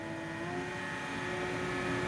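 A small boat engine purrs steadily on the Seine in Paris, under the Pont Neuf by the Île de la Cité, in the morning: a continuous low drone with a constant hum and no voices, holding an even level throughout.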